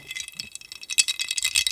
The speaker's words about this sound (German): Kleiner Soundeffekt mit Eiswürfeln bei der Hitze. 36 Grad.